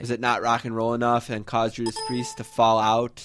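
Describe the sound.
A short electronic alert ding, like a browser's no-match chime, rings out briefly midway through while a man keeps talking over it.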